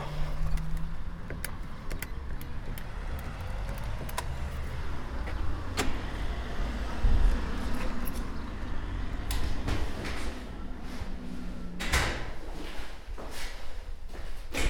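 A stairwell door is opened amid a steady low rumble, with several sharp clicks and thuds of handles and latches scattered throughout, moderately loud, with no talking.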